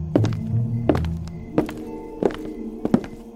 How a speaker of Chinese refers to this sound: 大个子刚进门。阿尔贝特就用力的把门关上，锁起来了。大个子在里面使劲儿的砸着门